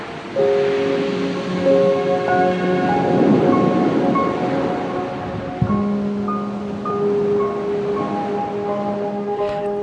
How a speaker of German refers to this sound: Die Musik und die Geräusche des Meeres beruhigen mich auf meinem Weg in den Schlaf.